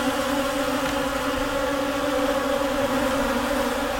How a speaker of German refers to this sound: Ein dröhnendes, schwarmartiges Geräusch folgt diesen einzelnen, leiser werdenden Surren über eure Köpfe hinweg. Es sind nicht eine, nicht zwei, nicht drei, bestimmt 50 von diesen fliegenden Kreaturen, die sich über euren Kopf hinweg bewegen.